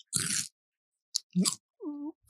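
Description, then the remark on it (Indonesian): Someone chews crunchy food, with a few loud, crackling bites separated by short pauses, followed by a brief hummed voice sound. “cuma orang ngunyah nih besok besok jangan beli makanan dah”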